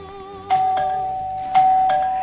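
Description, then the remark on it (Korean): A doorbell chimes twice, each press giving a clear ding-dong with a sustained ringing tone, fairly loud, as a fried chicken delivery arrives during a World Cup football match. “아 배달이 오긴 오는 거야 진짜 어, 빨리 와 진짜 그때 울리는 초인종”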